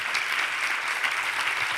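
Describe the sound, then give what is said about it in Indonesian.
An audience applauds, steady dense clapping from many hands forming a continuous crackling wash, fairly loud and even throughout with no voices over it. “Mana tepuk tangannya saudaraku?”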